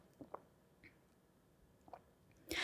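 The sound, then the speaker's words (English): Soft mouth sounds of someone sipping coffee: a few small wet clicks and slurps spread out in near silence, ending in a sudden louder, breathy rush. “So I'm going to take a sip of this coffee.”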